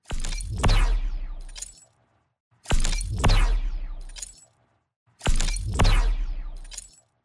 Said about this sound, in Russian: он воспроизводит звук BFG 9000 из игры с помощью связки ключей